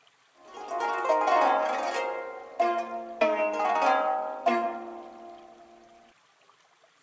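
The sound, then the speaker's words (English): An ancient Egyptian lyre is plucked alone, with a handful of strummed notes ringing out and overlapping, each attack sustaining warm, resonant tones that slowly fade toward silence at the end. “Here is the sound of ancient Egyptian lyre.”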